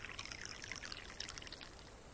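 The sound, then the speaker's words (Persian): Tea pours steadily into a cup for a couple of seconds, a continuous liquid splash with bright bubbling trickle tones and no talking. “دارم برای چای میریزم عزیزم”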